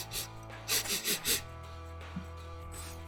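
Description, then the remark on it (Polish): A voice imitates a metallic robotic dog sniffing a person's legs: four quick, breathy, hissing puffs in a steady rhythm, fairly loud, over a low constant hum with no talking. “Co prawda nie ma nosa, ale dźwięk wydaje takiego.”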